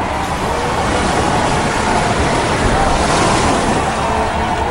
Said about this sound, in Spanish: Miren qué milagro, se está cerrando el mar.